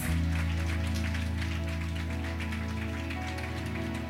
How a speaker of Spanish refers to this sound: Gloria a Dios. Pueden darle un aplauso al Dios de los cielos.